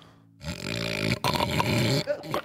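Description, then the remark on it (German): A voice imitates loud, nasty snoring coming from inside a colorful wagon: two long, harsh, rattling snores followed by a shorter snort, growly and raspy, with nothing else audible. “Das ist das Schnarchen.”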